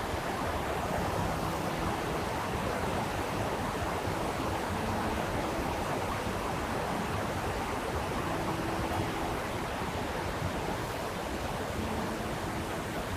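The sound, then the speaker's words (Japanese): A babbling river stream rushes steadily for the whole stretch, a dense, even hiss of flowing water with a soft bubbling texture and no voices over it. “まあ、あの、この川のせせらぎの音を聞いてもらって、フィールドレコーディング、ポッドキャスト感が出ればいいんじゃないかなとめっちゃ思います。”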